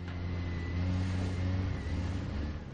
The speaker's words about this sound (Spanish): Walt avanza con el coche. Se dirige a su casa.